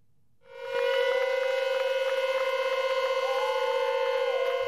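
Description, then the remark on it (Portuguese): The siren of the volunteer firefighters' station in Pampilhosa starts up to signal the departure of firefighters walking to the Sanctuary of Fátima, holding a loud, steady wailing tone with a strong harmonic drone, sustained continuously from just after the start to the end, with no voices. “A sirene assinala a hora da partida do quartel dos bombeiros voluntários da Pampilhosa.”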